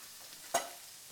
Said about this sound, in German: Habe ich dir das schon mal gesagt, dass ich das wahnsinnig geil finde, wenn man Tomaten anbrät? Ja. Ich mag die auch so lieber. Und dann kommen noch Zwiebeln und Knofi dazu. So, das Ganze darf jetzt einfach mal so ein bisschen vor sich hindingsen.